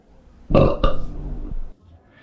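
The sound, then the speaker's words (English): A single long, loud belch bursts out, rumbling for about a second with a guttural, throaty rasp before cutting off into quiet, made while rating beers. “be discussing and rating these beers with these suds ratings, plus our own signature belching sounds accented with R's.”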